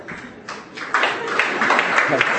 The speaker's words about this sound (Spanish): Les costó trabajo, ¿eh? No quería ser los primeros, pero eh, soltaron las palmas, ok, soltaron las palmas.